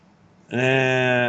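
After a brief quiet moment, a goat lets out one loud, drawn-out bleat, holding a steady nasal tone until the end.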